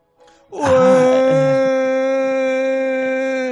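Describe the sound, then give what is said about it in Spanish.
An audience lets out a loud, sustained excited shout, cued by a presenter, on the announcement of the game God of War 4. It rises suddenly and holds one steady pitch for about three seconds before cutting off, unbroken, with no talking around it. “Voy a decir el siguiente juego y vais a gritar vosotros ya, ¿vale? Quiero que gritéis, pero vamos, quiero escucharos desde aquí.”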